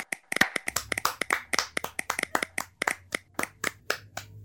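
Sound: hand clapping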